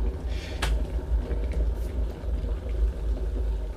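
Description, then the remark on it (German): An electric kettle heats water for tea with a steady, deep rumble and a busy hiss of bubbling, continuous throughout, with no voices. “Der Wasserkocher hat das Wasser jetzt richtig schön heiß gemacht.”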